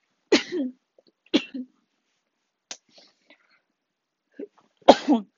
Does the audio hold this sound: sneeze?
yes